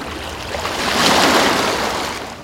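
Ocean waves roll in with a broad, hissing rush that swells to a peak around the middle and slowly recedes, steady and fairly close, with no voices.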